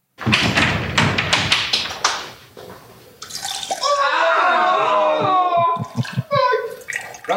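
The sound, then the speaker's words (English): A steady splashing stream of urine runs for several seconds as competitors urinate on the final day of a competition, after a few sharp bursts of noise, fairly loud, with some faint background chatter. “It's the final day of competition, so they all go for a piss before uh, they get back at it.”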